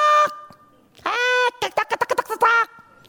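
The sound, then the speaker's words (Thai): A person imitates a mother hen clucking to call her chicks: a short call, a longer drawn-out squawk, a quick run of staccato clucks, then one more loud, nasal cry, all fairly high-pitched and strong. “เมื่อแม่ไก่เราเป็นลูกไก่ เมื่อแม่ไก่บอกกระตากกระตากกระ”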